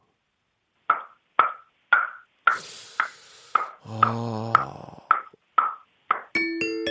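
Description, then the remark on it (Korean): A voice imitates a wooden mallet knocking, made entirely with the mouth, with about a dozen crisp, hollow clicks in a steady, even rhythm, fairly loud, with a brief hum partway through and a ringing tone at the end. “그러니까 이제 망치, 나무 망치로 두드리는 소리죠?”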